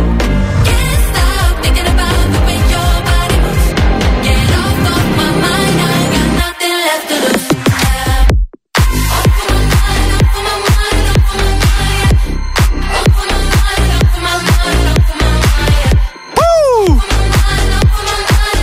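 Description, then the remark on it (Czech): A loud, fast, upbeat new pop song by a pop icon plays with a driving beat and dense production, pausing for a couple of brief breaks, with a swooping synth effect near the end. “Je to nový, je to svižný, je to rychlý. Může za to ikona pop.”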